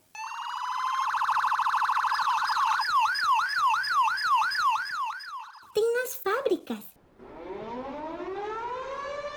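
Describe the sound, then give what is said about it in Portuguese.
A loud police car siren: a steady tone breaks into a rapid wavering wail, then a few sharp whooping yelps, ending with a slow rising wail. No one speaks. “Por exemplo, tem sirene do carro de bombeiros da ambulância da polícia”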